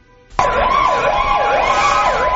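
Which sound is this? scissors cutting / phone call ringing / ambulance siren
ambulance siren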